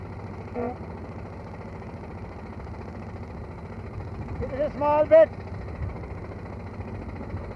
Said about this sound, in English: We're absolutely weaving in and out of the traffic here.